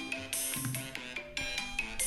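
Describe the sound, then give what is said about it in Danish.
A phone ringtone for an incoming call from the boss, the company director, plays a bright, busy electronic melody of repeated chiming notes, loud, with no one talking over it. “Øh, det, er, det er sgu chefen. Det er direktøren.”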